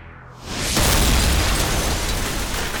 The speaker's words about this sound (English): A torpedo amidships, causing more fires.